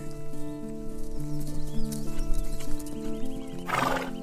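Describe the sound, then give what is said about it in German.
The hooves of two horses clip-clop steadily as they approach, with sustained tonal whinnies and a sharp neigh bursting out near the end, no voices present. “Du bist völlig fasziniert von dem Anblick und kannst deine Augen nicht abwenden, bis die Pferde direkt vor dir stehen.”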